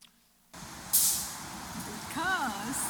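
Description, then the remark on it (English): A heavy public transit bus in Miami, a Praise bus carrying the message 'Save your marriage, stop divorce', rumbles by, releasing a sharp, loud hiss of air brakes, then a short wavering squeal rises over the steady engine noise, with an indistinct voice briefly underneath. “this is a public transit yes. bus.”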